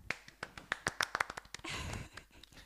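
Scattered, irregular hand claps build into a short, dense burst of applause that then thins out into a few last claps, with no voices.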